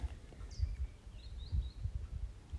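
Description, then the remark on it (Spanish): Small birds chirping outdoors in nature by a river, a brief high call and a few thin tweets, over a steady low rumble of the flowing river, wind and leaves, with no voices. “Eh, disfrutando la naturaleza, el ruido de, del río, de los pajaritos, de, del viento, de, de las hojas.”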